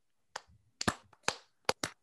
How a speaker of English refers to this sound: Hey, can we get a round of applause